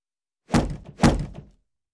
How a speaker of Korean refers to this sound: 재경이 놀라서 고지기를 불렀지만 대답이 없었고 재경은 크게 화가 나 발로 문을 박찼다.